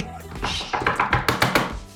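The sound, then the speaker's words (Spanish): A quick series of about six firm, evenly spaced knocks on a door, following a brief moment of low background noise. “Y luego, luego tocan la puerta, luego, luego.”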